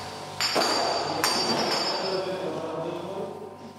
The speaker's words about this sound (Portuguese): Tudo começa com uma panela de pressão para destilar o gin. O que ouvimos aqui já é a fase final, o gin charis a ser engarrafado. Um negócio de reguengos de Monsaraz, que tem 5 anos e que inovou na produção com a ajuda de fundos europeus.